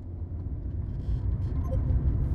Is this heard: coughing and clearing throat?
no